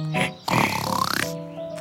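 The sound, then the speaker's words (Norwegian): A voice imitates a fat pig grunting as it lies down to rest: one loud, rough, snorting burst of under a second that breaks into quick rattling pulses, with steady tones sounding in the background. “Oi, der ligger den der feite grisen seg.”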